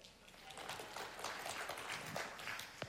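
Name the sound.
audience clapping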